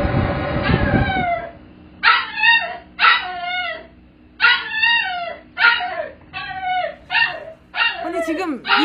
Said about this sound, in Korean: 스튜디오 안에 아, 댕댕이 한 마리가 있는 것 같아요. 귀여워. 아니 지금 아기가 엄청 엄청 그 뭔가 음. 겁먹은 듯한 느낌이에요, 어, 그쵸 그러니까 아하. 쫄았어요.